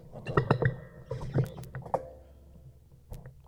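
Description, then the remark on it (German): Irregular rustling, scraping and tapping bursts as a microphone is handled and repositioned, loudest early on and then thinning out, with a few sharp knocks and no speech. “muss kurz meine Kamera, äh, Mikro richten.”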